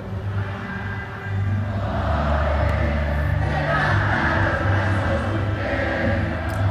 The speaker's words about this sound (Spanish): Se puede oír la gente coreando las canciones. Se escucha impresionante la plancha del sol.